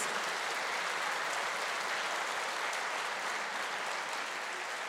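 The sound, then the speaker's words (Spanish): An audience applauds to the Lord in a steady, dense wash of clapping that holds at an even level for the whole stretch, with no voices breaking through. “Démosle un aplauso al Señor para que se cumplan cada una de ellas.”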